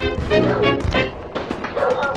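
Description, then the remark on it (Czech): Several Great Danes, kept hidden in an enclosure, bark in quick, overlapping bursts, loud, with deep harmonic woofs following one another over a couple of seconds. “a to proto, že chodil krmit své psy, své milované dogy, které musel nechat schované v ohradě poblíž dnešního stadionu Slávie.”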